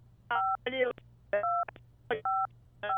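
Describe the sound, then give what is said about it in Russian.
Phone keypad tones beep four times in an irregular sequence as buttons on a caller's phone are pressed during a call, each a short steady dual-pitched tone, with brief bursts of a voice talking between them over a low background hum. “вы, наверное, щекой нажимаете кнопки, осторожно, осторожно, не давите на телефон.”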